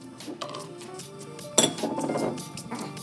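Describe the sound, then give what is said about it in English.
Drinking glasses clink together in a toast, one bright, ringing strike standing out amid a few lighter taps, fairly loud, with no one speaking. “Breaking glasses.”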